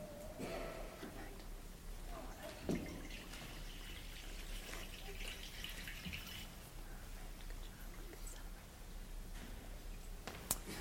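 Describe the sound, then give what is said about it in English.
Water is poured steadily into a baptismal font during a church baptism, a continuous soft splashing and trickling with occasional drips, fairly quiet and heard alone for about ten seconds. “Here at the font, we take ordinary water and set it aside for a holy purpose.”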